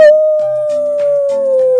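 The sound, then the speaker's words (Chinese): A wolf howl from far off: one long, steady, mid-pitched wail held for nearly two seconds, with fainter lower tones shifting beneath it. “突然，远方也传来了同样的声音。”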